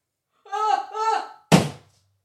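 A single sharp, heavy thunk as a book is smacked down hard onto a spider on a wall, preceded by two drawn-out vocal sounds from someone; the impact rings out briefly.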